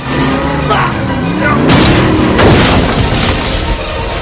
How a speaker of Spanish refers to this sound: Con el coche en paralelo, Rey choca contra el corredor.